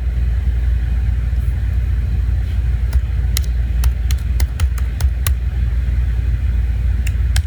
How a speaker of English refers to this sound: Welcome to the Hamptons traffic. That's why we're waiting till winter.